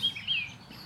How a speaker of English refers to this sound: But as you look around and you suddenly see the spots from where the birds are singing,